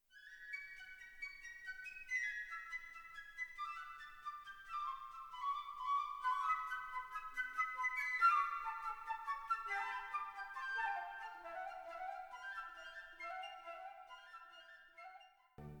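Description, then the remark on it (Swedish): Lively orchestral fugue, the finale in which all sections of the orchestra play together: fast, interweaving melodic lines layered over one another, mostly in the upper and middle registers, at a steady moderate volume with no talking. “Du hörde Benjamin Brittens A Young Person's Guide to the Orchestra, Fugan.”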